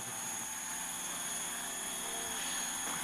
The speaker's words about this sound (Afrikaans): Jy het gesê ek moet die drone uitstuur vir ligskote, nie vir spaai nie.